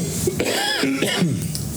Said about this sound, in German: Nee, ich wollte wegen Husten. Achso, du wolltest noch husten.